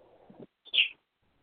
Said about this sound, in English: What? What are you tweeting at me for?